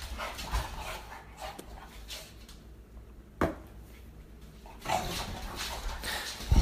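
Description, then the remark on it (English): A female dog pants in quick, breathy bursts, broken by a few sharp, excited barks and yips, with a louder outburst near the end. “The dog's going crazy, man.”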